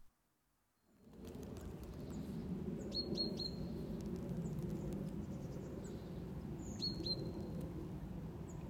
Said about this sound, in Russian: Ну, ну, на самом деле, как бы это не такой уж и характерный звук, но даже как-то вот, когда мне мама звонит, мы с ней болтаем по телефону, она мне всегда говорит, ой, класс, у тебя так птицы поют, это так прикольно, так прикольно